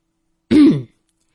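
A single loud throat clearing, a short rough guttural rasp lasting under half a second, followed by silence. No speech accompanies it.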